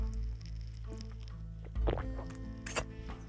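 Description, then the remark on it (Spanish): A couple of soft liquid slurps and swallows as someone sips a drink after a toast, in Santiago, Chile, set against a steady low background hum with no one talking. “Tú me estés escuchando, yo esté conversando, pero estemos tomando algo.”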